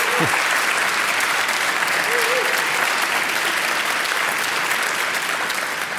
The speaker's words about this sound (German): Empfangt ihn gern mit einem warmen äh, Applaus.